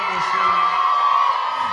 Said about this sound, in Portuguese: salva de palmas